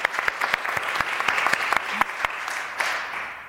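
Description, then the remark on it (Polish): An audience applauds a guest expert being introduced, many hands clapping steadily in a dense, crackling wash with sharper individual claps popping out irregularly throughout. “Brawa.”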